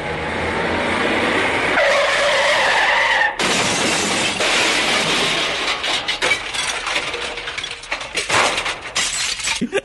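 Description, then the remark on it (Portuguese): A sound effect: a loud truck tire screech wails for a couple of seconds, then cuts into a sudden crash with shattering glass and clattering debris that rattles on and fades. No one speaks. “ah, esse caminhão foi tão bom.”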